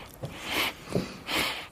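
Two breathy nasal sniffs, each a short hissing inhale with a brief pause between them, fairly quiet and with no talking.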